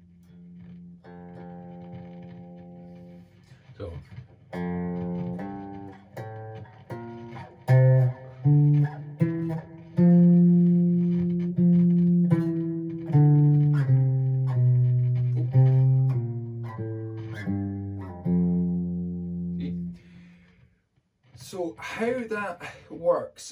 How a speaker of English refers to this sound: If you move up two frets, that's a tone. So with this scale, tone, tone, semitone, tone, tone, tone, semitone, that would move up the scale like so.